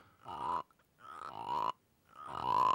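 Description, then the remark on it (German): Three drawn-out, ringing croaks, fairly loud, each rising slightly in pitch, made by rubbing a Turkish tea glass to mimic a larger frog, with short pauses between them and no talking. “Dann kommt ein größerer Frosch, das ist ein, ein türkischer Teeglasfrosch.”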